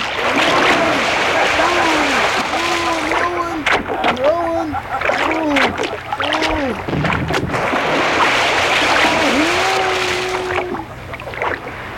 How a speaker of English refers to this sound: Untie the rope, Blueberry, and keep rowing.